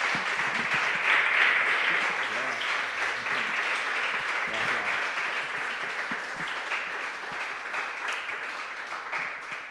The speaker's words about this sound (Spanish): Y ahora de despedida, muchas gracias de verdad por los, por los aplausos, por la presencia, por, todo.